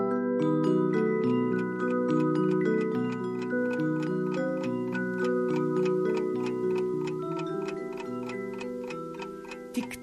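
A pocket watch ticks steadily and evenly over a gentle, continuous tinkling melody that runs throughout the whole stretch.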